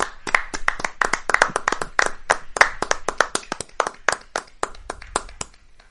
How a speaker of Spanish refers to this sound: Estamos grabando esto en, la hora de los aplausos. Hacemos un aplauso simbólico aquí. Venga, sí, claro. Vamos a dar las gracias a todas estas personas. Vamos un aplauso simbólico.